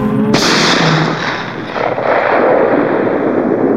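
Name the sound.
pistol gunshot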